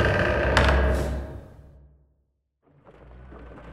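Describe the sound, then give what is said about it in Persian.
A door opens with a loud sweeping rush that fades into a moment of silence, then a softer, muffled rumble starts up. No one speaks. “همین که پلکایش روی هم رفت درب باز شد.”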